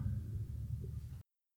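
A low, steady engine rumble of a motorcycle driving past drifts in from outside through an open window, fairly faint, lasting just over a second before cutting off. No one speaks.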